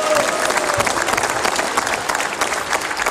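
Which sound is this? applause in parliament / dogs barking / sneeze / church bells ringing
applause in parliament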